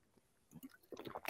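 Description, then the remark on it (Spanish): Someone drinks water: a few wet sips and gulps in quick succession, squishy and liquid, with no talking. “Es el tipo que más toma agua”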